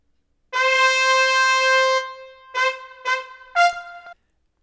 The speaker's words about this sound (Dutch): Zo'n snel interval begint op de vierde en laatste toon van dit signaal.